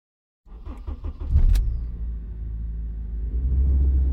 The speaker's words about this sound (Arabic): طبعا اللي يسمعنا سمع اكيد اصوات مصاحبه طبعا توضيح احنا نمشي على شارع معبد فوق ارض رخوه يعني هاي كل الاماكن كانت عباره عن اهوار صح